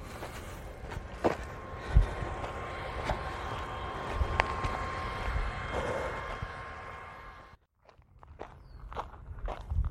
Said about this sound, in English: Going back to the water pump here now, so I'm going to hang on for a bit.